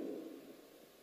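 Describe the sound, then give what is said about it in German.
A steady, muffled hiss of whipped cream spraying from an aerosol can as a preacher keeps his finger pressed on it, running continuously for about a second at a low, even level with no one talking. “Und ich extrapoliere diese Gedanken in meinen Finger hinein und mein Finger hört nie auf zu sprühen.”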